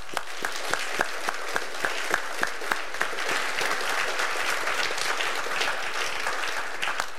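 An audience breaks into steady applause recognizing a woman's long, faithful service, dense overlapping claps with a few sharper individual claps standing out early on, sustained at an even loudness for several seconds with no talking.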